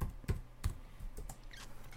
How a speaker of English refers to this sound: And I think I just typed push. push lid.